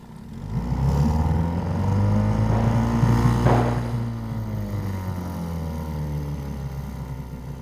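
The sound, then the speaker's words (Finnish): A motorboat setting out from the opposite shore and heading toward the listeners; its engine drones steadily with a low, buzzing hum. Its pitch swells and rises midway before easing back down. A brief rushing hiss passes partway through, and no one speaks. “Katsokaa, vastarannasta lähti vene meitä kohti.”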